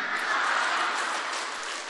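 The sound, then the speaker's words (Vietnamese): An audience at a preacher's talk claps steadily for about two seconds, a dense, crackling wash of many hands with no talking over it, holding an even loudness throughout. “rõ ràng vỗ tay là kích thích đó nghe quý vị vỗ tay là kích thích đó nghe mấy bà kích mình thích giảng”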